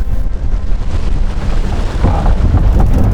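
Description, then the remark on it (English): Heavy waves pound against the hull of a ship sailing across the sea to the New World in a continuous, booming roar, with deeper surging crashes swelling near the end amid harsh rushing wind. Loud, with no voices. “The rupturing sounds of waves against the hull keep Elena awake at night.”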